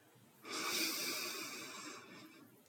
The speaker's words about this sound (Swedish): Vi andas in genom näsan.